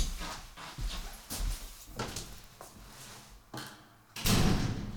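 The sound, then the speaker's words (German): A door is handled and opened, with clunks and rattles of the latch and handle, followed by a louder thud or bump near the end as the door swings open to let a visitor in. “Er steht schon vor der Tür, etwas zu früh, aber ich werde ihn trotzdem mal reinlassen.”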